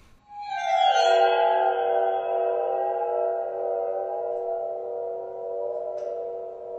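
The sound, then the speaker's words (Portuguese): A loud, sustained tonal sound with an eerie, oriental suspense feel swells up quickly and then holds steady with rich, buzzing overtones for several seconds. No one speaks over it. “Parece meio é um aqueles xilofone, xilofone, xilo...”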